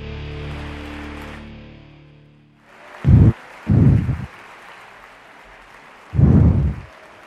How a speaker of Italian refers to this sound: Gli applausi Sammy sono anche per te, ma sono per conto in questo caso.